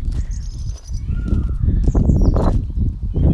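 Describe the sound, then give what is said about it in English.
Several birds call outdoors on a sunny morning, with one unusual drawn-out peacock cry standing out among the chirps, all over a steady low rumble of wind or handling noise. “That really unusual one was a, was a peacock”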